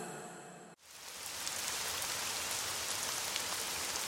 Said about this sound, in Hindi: रात का वक्त था बाहर मूसलाधार बारिश हो रही थी बादल भी गरज रहे थे